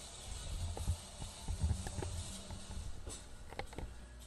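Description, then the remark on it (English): A pallet jack moving totes, boxes and pallets of material rumbles along a hard floor in an Amazon fulfillment center with a low droning roll, scattered clacks and thumps as loads shift, over a steady hum. “The sound you're going to hear right now in the background is what it sounds like when you're working as a water spider, using pallet jacks, moving totes and boxes and pallets of material using a pallet jack.”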